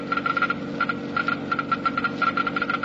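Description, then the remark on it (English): A Geiger counter clicks rapidly and irregularly in uneven bursts over a steady low hum, the crackling ticks bunching together, then thinning briefly before speeding up again, measuring the engine wear rate of a motor oil. “You have just heard Geiger counters clicking off the scientific proof that new RPM motor oil is years ahead.”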